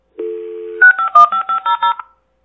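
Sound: telephone number being dialed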